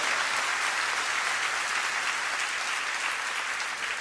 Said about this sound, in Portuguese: Pode dar salva de palmas, pode celebrar por isso.